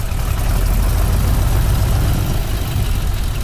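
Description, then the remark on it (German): A Waldo Wright Flying Service propeller plane with an open cockpit for four people takes off, its engine droning steadily with a loud, rumbling low end and a rough, pulsing texture, continuous throughout with no voices. “ist ein Start mit der Maschine des Waldo Wright Flying Service. Sie hat ein offenes Cockpit für vier Personen.”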